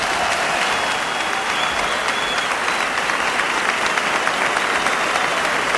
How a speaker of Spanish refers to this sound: Así que toda la plaza se pone en pie para saludar el himno nacional que oímos de fondo que la gente sigue aplaudiendo, que es bonito. Lindo el himno y aplaudiendo, sin, sin esperar que termine. Cortito por derecho y ahora la gran ovación.